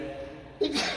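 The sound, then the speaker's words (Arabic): A single sneeze bursts out after a moment of quiet room tone: a short voiced catch followed by a sharp, hissing blast of air, fairly loud. “يرحمك الله”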